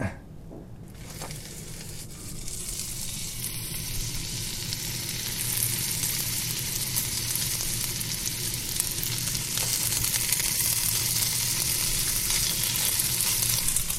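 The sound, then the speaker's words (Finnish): Sausage meat sizzles steadily in a cast-iron pan, a dense, crackling hiss that builds slightly louder over time and continues without pause. No voices are heard. “No Tää, kyllä se varmaan käy, mutta on perinteisempi ja sitten se ruskistaa sitä paremmin, kun teflonpannussahan se ei ruskistu.”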